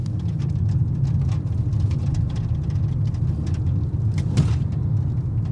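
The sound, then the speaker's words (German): Loose objects inside a car clatter back and forth and tick irregularly over the steady low rumble of the car in motion, the small knocks scattered throughout, with no one speaking. “wenn während der Fahrt Dinge im Auto hin und her klappern.”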